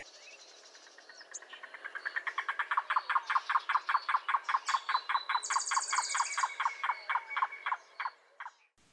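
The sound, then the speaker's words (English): A yellow-billed cuckoo calls with a long, clear series of hollow, clucking knocks that builds quickly, holds a steady rhythm, then slows into a few spaced notes at the end, with no voices. “Um, he talks about how it seems to like calling on cloudy days, which has earned it the nickname rain crow in certain areas.”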